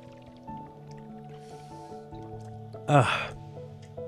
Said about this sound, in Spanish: lubricando la garganta con agua.